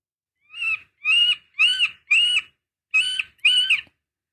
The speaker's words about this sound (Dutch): Dat is dus de middelste bonte specht, joh. Nee. Ik, ik, ik, dacht, wat is dit? Maar die maakt dus een heel apart... Dit is een roep, hè. Dus niet zijn roffel, nee.